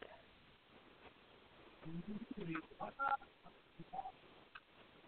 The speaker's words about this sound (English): Spike figure roars and makes stomping sounds. His eyes light up.